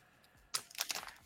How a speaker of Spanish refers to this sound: perdón por el ruido de la bolsa